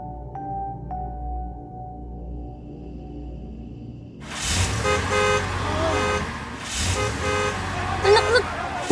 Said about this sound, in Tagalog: Patayin niyo yung busina niyo. Ang ingay naman, oh. Ang ingay naman, oh. Hoy! Ang ingay! Naman!